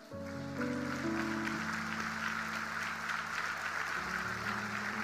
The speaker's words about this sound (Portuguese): Dê um aplauso ao Senhor.